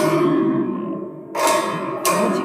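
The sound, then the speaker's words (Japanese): A spring drum is shaken, giving a lingering metallic ringing followed by two loud, close clanging crashes about a second apart, with no talking. “で、こうやって人に、遊ばしていくと、こうやってカランカランカランガシャンガシャンガシャン。”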